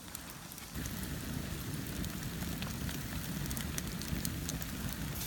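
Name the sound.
campfire crackling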